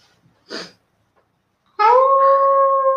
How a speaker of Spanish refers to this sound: Este lobo, ¿habéis escuchado al lobo?